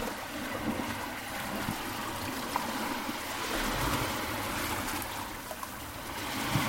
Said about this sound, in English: the sea ebbing, leaving wet sand and white foam residue.